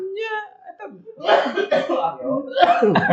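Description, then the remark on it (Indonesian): A brief voiced sound, then a run of harsh, raspy coughs into the microphone, coming in several rough bursts over about two seconds. “Batuk minum minum.”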